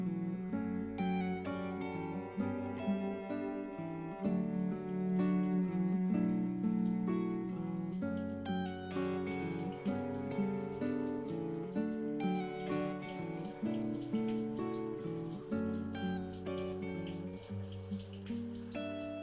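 A recorded pop song released in 2013 plays steadily, an instrumental stretch of warm sustained chords with light plucked notes and a soft, wash-like texture. No one speaks or sings over it.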